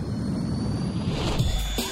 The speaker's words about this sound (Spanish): Motores. Con niveles de energía óptimos. Iniciamos despegue.